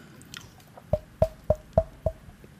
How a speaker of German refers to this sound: Habt ihr es gehört? Ich habe auf Holz geklopft. Das war mein Kopf. Weil ich bin ein Holzkopf.